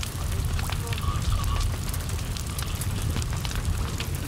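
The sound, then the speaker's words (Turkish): A steady, dense crackle of flames with scattered sharp pops, filling the space continuously at a moderate level, with a low rumbling roar underneath. “Alev sesi daha iyi olur sanki ya fark etmez ya.”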